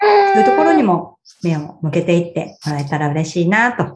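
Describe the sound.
A baby's high, drawn-out vocal sound rings out at the start, fairly loud, before an adult starts talking in a calm conversational voice.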